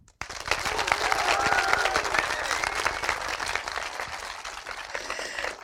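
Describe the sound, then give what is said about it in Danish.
A live audience at a recording in Empire Bio, Nørrebro, Copenhagen, bursts into sustained applause with scattered cheers and whoops, a dense, steady clatter of many hands clapping at once that holds for several seconds before thinning slightly. “Velkommen til denne live udgave af Rumsnak, hvor vi lige nu i optagende stund befinder os i Empire Bio på Nørrebro i København, oven i købet med et vaskeægte, lyslevende publikum, og må virkelig høre, hvordan I lyder.”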